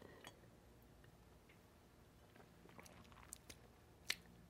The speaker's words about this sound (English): well, um, let's sip our wine.